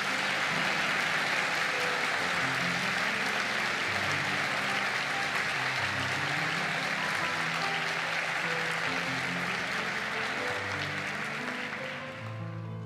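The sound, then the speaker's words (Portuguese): A large crowd applauds the Lord in gratitude for about twelve seconds, a dense wash of clapping with music playing softly underneath, easing off slightly at the very end. “você pode aplaudir esse momento, Senhor?”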